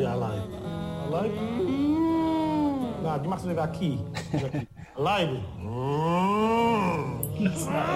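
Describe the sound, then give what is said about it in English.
A voice imitates a lion's roar with long, wavering, moaning swells that rise and fall in pitch, sounding more like a cow's moo; loud and sustained, with a brief break midway. “like if you're teaching your son how to sound like a lion, you don't make a cow noise.”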